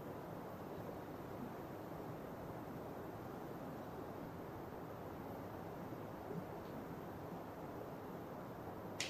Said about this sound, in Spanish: atentos, el río que suena.